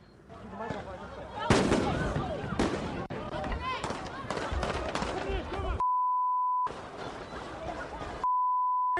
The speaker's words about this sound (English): That is at the moment where we heard what it appeared to be fireworks. Then we heard gunfire. It was all captured on our cameras.